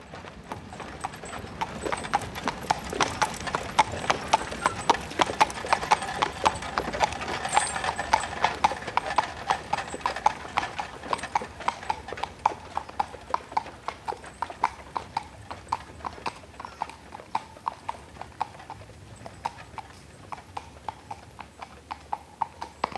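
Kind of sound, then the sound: animal, horses walking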